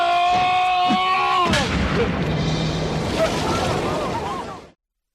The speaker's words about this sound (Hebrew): מים יצאו מן האבן.